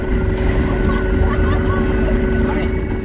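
A small dinghy outboard motor runs steadily with a loud, continuous droning rumble and buzzing hum that holds constant throughout, with faint background voices.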